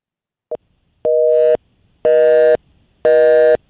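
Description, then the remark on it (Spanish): A telephone line tone on a call-in to the sports show Grandes en los Deportes: a quick blip, then three loud, steady half-second beeps repeating about once a second, with no voices. “Adoro, adoro, adoro ese timbre. Buenas tardes, sí, la otra línea.”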